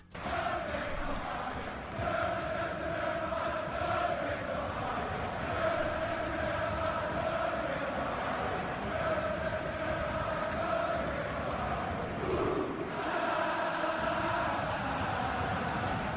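A huge crowd of Northern Ireland fans in the stands of an arena sings a chant together as Will Griggs walks out with Northern Ireland, the melody rising and falling in repeated phrases over a dense, roaring wash of voices that stays loud throughout.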